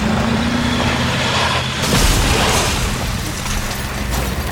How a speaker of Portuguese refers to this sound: Tu consegue desviar o carro para aquela estradinha, só que tu comete um erro. Ah, meu Deus. Tu não consegue fazer a curva fechada bastante e tu bate em outra árvore.